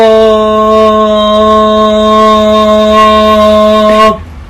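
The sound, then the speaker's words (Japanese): A voice imitates the steam whistle of a large ship leaving port, with one long, loud, steady note held for about four seconds, then cut off abruptly. No other talking is heard. “何がわかるんこれ実は、この汽笛の音や長さ普段するディープキスの長さや回数を表してるんだとか”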